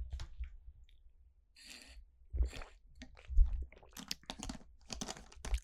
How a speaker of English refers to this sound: lovely bit of water. Smashing it down.